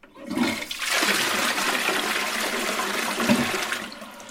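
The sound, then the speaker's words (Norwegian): A toilet flushes with a loud, steady rush of water lasting several seconds, fairly strong, with no voices over it. “Nei, det kan jo ikke være Askøy, fordi at der fungerer vel ikke toalettene nå, gjør de det?”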